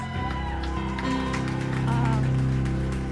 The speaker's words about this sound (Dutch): En weet je wat we vandaag zo leuk weer kunnen doen? We kunnen joelen en klappen. Dus applaus, kom maar dus.